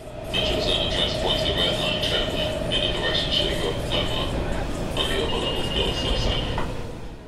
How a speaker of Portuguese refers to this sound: Então, eu vou até a capital dos Estados Unidos e lá eu pego o metrô e eu ando de metrô. E eu ando mais um pouco de metrô.